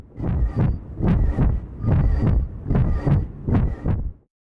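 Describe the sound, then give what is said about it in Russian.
A rhythmic, whooshing pulse like a heartbeat, the sound of pulsing tinnitus heard inside the head: about six muffled throbs at a steady pace, fairly loud, with no other sounds. “это подкаст «Шум в ушах» о том, как жить со странным звуком в голове. Вот с таким.”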